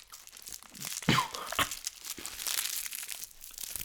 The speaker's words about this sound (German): wir essen jetzt noch mal zum Abschluss der Folge alle zusammen eine Schokokugel.